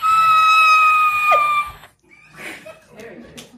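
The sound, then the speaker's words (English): A voice imitates a shrill, high-pitched keening cry, sustained for over a second and a half, then breaks off into quieter, breathy vocal sounds and faint chuckling. “The thing wrapped around Graham's arm emitted a high pitched keening sound.”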